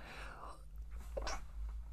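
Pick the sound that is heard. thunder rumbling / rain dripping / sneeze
sneeze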